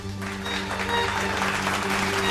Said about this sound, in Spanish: Y los conmovedores aplausos de las 9 de la noche, todo el mundo unido aplaudiendo a los médicos.